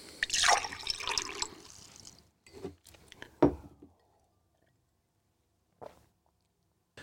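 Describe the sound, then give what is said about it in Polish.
Water is poured into a glass for drinking in a steady, splashy stream for about two seconds, followed by a few soft knocks and a clink, then near silence. No one speaks. “Mm, oj, woda mi się skończyła. Muszę się napić.”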